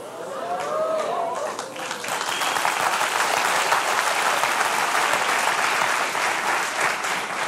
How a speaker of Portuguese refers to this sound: Essa salva de palmas foi assim, tipo.